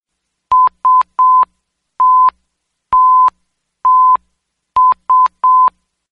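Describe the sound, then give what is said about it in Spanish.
A telephone message signal: nine steady, mid-pitched electronic beeps in an uneven pattern, three quick ones, three separate longer tones, then three quick ones again, with silence between and no voices. “¿Habéis oído la señal? Es un mensaje de alguien, no sé de quién”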